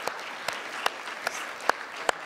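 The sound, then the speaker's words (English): A church audience gives a round of applause to celebrate those who have stood up, a dense wash of clapping with several sharper, louder claps standing out at irregular moments. No one speaks over it. “Uh, as a church family, can we just give a, a round of applause?”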